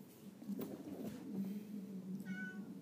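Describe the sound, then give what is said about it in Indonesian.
A cat at home meows repeatedly and insistently, a series of drawn-out, nasal cries with a slightly strained, wailing quality toward the end. “kucing gue suka gitu tuh kalau dia di rumah sendiri cuman ada gue doang berisik buat meong meong meong meong dia nggak tahu gue lagi ngomong begini gangguin aja gitu”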